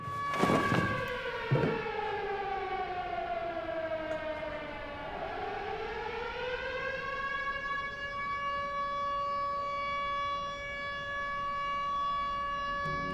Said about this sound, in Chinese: 与此同时，警报声大作，玩家们被红灯帽叫醒，在宿舍排好队